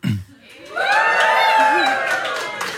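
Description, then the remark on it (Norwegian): A live audience at Kulturhuset, asked to make some noise during a live recording for Kontordagen for musikere, artister og låtskrivere, bursts into loud, sustained cheering and whooping after a brief low thump, the roar of many voices holding steady for a couple of seconds before easing slightly. “Det kan jo ikke du som lytter eh, på podkasten se, så hvis publikum kan lage litt lyd”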